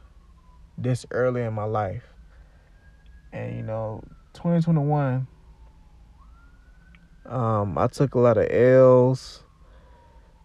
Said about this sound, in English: Sorry about the siren.